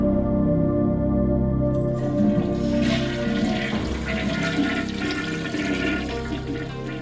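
A toilet in a women's restroom flushes with a loud, steady rush of water that swells and churns, then gradually tapers off as the bowl refills. No one speaks.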